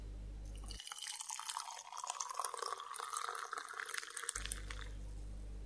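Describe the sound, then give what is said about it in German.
Fresh coffee is poured from a pot into a mug in a steady, trickling stream for about three and a half seconds, a bright splashing sound over a low hum that stops abruptly before and after. “Barbara goss Bruno von dem frischen Kaffee ein.”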